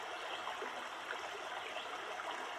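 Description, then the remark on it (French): A stream babbles and laps over rocks in a steady, continuous wash of bright, bubbling water, fairly loud, with no voices. “avec la présence de la roche, de la pierre, du minéral, entre lesquels s'écoulent dans un clapotis poétique l'eau des ruisseaux.”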